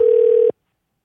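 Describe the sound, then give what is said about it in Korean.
A telephone dialing tone as a call is placed to a listener taking part in an impersonation challenge: one steady, fairly low-pitched beep holds evenly for about half a second, then cuts off abruptly into silence. No voices are heard. “2779님 전화 한번 걸어보겠습니다”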